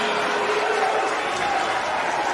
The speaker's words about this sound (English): Are you done? You guys give Taz a round of applause.